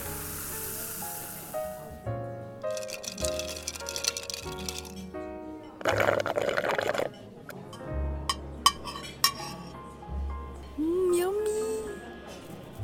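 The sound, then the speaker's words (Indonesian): Soda pours over ice with a fizzing hiss, broken by several sharp clinks of cubes against glass, while murmured voices and clatter fill the background. “mas tambah esnya ya eh sodanya lupa belum dikasih makasih ya mas”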